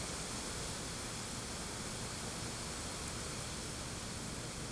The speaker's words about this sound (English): That's just the sound of a thousand leaves rubbing against each other when the wind blows.